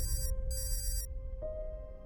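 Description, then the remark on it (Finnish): A mobile phone ringtone for an incoming call plays softly, with bright electronic tones pulsing on and off twice before a steady tone jumps to a higher pitch, over a low background rumble. “Miesystävä soittaa.”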